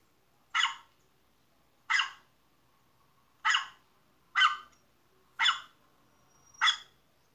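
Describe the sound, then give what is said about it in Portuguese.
A dog barks six times in short, sharp yaps spaced about a second apart, clear, with near silence in between and no talking. “Claro, o cachorro.”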